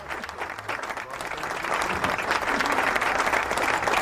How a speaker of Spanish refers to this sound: Muy bien, señoras y señores, hay aplauso, ¿no? Porque quiero aplaudir a este señor, eh, a este gran actor, a este señor que no dejó sus sueños, a este señor que lo ha cumplido,